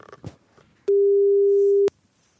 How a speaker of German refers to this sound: Liebe Kollegen im Schaltraum, ist immer noch besetzt bei ähm, Christian Beek. Das ist ja ein Krampf heute.